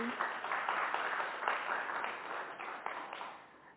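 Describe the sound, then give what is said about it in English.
A small group claps for a few seconds for a woman who has just shared her story, a dense patter of hand claps at moderate loudness that thins and fades toward the end. “Give her a little applause.”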